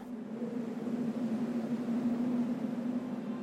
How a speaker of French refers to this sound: Et puis c'est ouais c'est tranquille en fait. T'entends juste le vent.